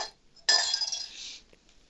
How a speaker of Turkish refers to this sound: Zeynep de bardakları kırarken